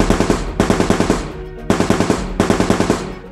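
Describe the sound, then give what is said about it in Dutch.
Rapid bursts of machine gun fire as German troops reaching the bridge at Geulen come under heavy fire: three long rattling volleys of sharp, evenly spaced shots separated by brief pauses, loud and with no voices. “De Duitse troepen die de brug in Geulen bereiken worden zwaar onder vuur genomen.”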